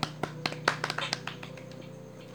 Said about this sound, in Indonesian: ya apresiasi gue buat mereka yang masih sampai saat ini uh, eh, bisa LDR ya sih hebat sih mereka gue tepuk tangan dulu